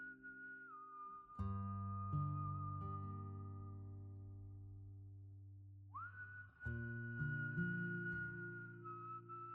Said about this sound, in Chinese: 卸下单子的矿工们围成一圈，没有只言片语，唯有轻轻的哨声，疗愈着每一个疲惫的身躯。